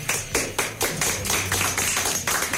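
Applause from a small group welcoming a guest on a radio programme's end-of-year farewell show, sharp hand claps falling in a loose, fairly steady rhythm over a low background hum, with no voices.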